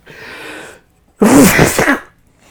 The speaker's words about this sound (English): Well, that spice makes me sneeze.